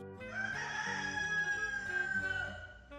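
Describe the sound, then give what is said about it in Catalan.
A rooster lets out one long, drawn-out crow, loud, with a low murmur of chickens in a henhouse underneath and no talking. “Un dia, quan anava a netejar el galliner, va veure que, entre les seves aus, havia aparegut una gallina nova i estranya.”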